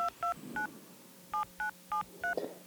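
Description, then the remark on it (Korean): Telephone keypad tones beep as a number is dialed: three quick dual-tone presses, a short pause, then four more, clear with only a faint hum behind them. “전화인가? 전화인 줄 알았죠?”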